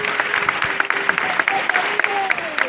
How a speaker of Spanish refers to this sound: Avanzando muy, muy, muy despacio el racheo en esta plaza de San Martín. Se ha levantado el paso de la Virgen de la Piedad en el Bartillo. Están en ello, escuchamos el aplauso y, a la vez en ello.